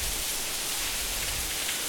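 rain falling

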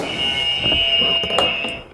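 quiz game buzzer

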